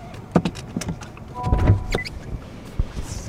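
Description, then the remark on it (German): Inside a Honda E electric car in front of a car-sharing cooperative's headquarters in Switzerland, seatbelts click into their buckles with several sharp metallic snaps, mixed with fabric rustling and a brief whirring mechanism, and no one speaking. “Wir schnallen uns an vor dem Hauptsitz der Mobility-Genossenschaft.”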